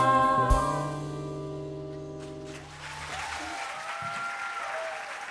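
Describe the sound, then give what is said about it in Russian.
A song's final sustained chord rings out and fades, then an audience breaks into steady, dense applause that fills the remaining few seconds without any talking. “Это дежурные слова, что вся Москва аплодирует.”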